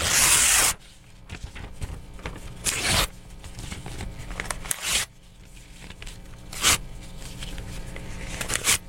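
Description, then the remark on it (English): Paper is torn again and again into small pieces about two inches by two inches, a series of sharp ripping bursts with brief pauses and soft rustling between them, no talking. “I'm in good tearing shape. I've I've torn it many times. Uh, this is now a pile of paper that is about two inches by two inches, and now I will throw it in the trash can.”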